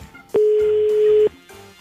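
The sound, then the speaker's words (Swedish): A single steady electronic tone sounds for about a second, loud, with quiet background sound before and after it: a telephone ringback tone as a radio morning show calls a listener. “vi ska ringa upp Mikael här och se vad vi kan hjälpa honom med”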